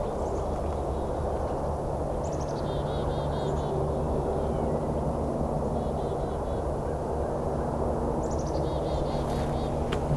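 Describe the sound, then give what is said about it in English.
Faint bubbly twittering calls from a small flock of about six pine siskins flying overhead come in a few short bursts over a steady low rumble of background noise. “pine siskin, two pine siskin. That pew pew. Oh, there's a bunch of them.”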